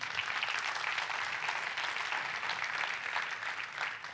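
Steady applause from a church audience during a sermon, a dense crackle of many hands clapping together at an even volume throughout, with no voices standing out.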